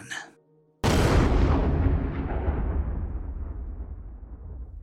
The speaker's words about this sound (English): The explosion was far beyond our expectations. After a quick flash of orange light, the boom was spectacular.